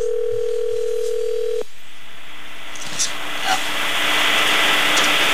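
An outgoing phone call, placed by someone playing Santa Claus to a five-year-old boy, rings once, a steady electronic tone on the line lasting under two seconds, then cuts off to hissy line noise as the call connects.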